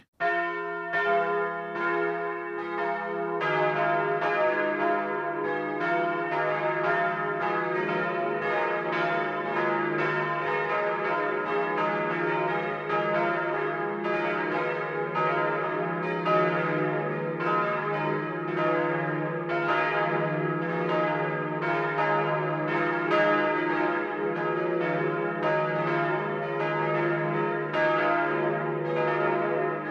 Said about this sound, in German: Es ist 12 Uhr. Das Mittagsläuten kommt heute von der katholischen Pfarrkirche St. Peter und Paul in Kaufbeuren im Allgäu.